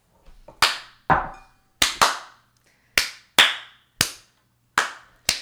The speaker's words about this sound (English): What button makes it sound like there's more claps?